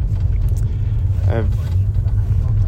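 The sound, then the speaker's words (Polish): Steady low rumble of road noise inside a moving police patrol car at night in southern Nevada, USA, a constant engine and tyre drone filling the background, with a brief harmonic squeak or whine rising midway. “Jak zwykle nagrywam w nocy podczas patrolu prosto z radiowozu, więc w tle będą różne dziwne dźwięki, trzaski, piszczenia, e, bo mój radiowóz jest w ruchu, e, bo prowadzę cały czas patrol.”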